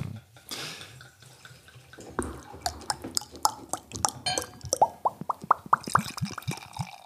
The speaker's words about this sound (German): Es schäumt auch so schön im Glas.